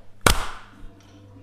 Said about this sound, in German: Nochmal klatschen. Drei, zwei, eins.